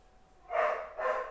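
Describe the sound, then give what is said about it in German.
A dog barks twice in quick succession, the two barks sounding somewhat muffled against a quiet background, with no one speaking. “Hund bellt”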